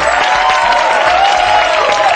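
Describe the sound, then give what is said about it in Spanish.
A crowd applauding: dense, steady clapping that stays loud and continuous for a couple of seconds, with a faint sustained cheer or whistle running through it. “No, no, aplaudan ahí.”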